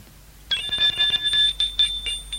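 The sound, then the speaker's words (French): An apartment doorbell rings with a continuous, shrill electric jangle, a rapid metallic rattle over a high ringing tone, starting abruptly after a brief pause and sounding for about two seconds with no talking. “Sans demander les nouvelles à la concierge, il sonne.”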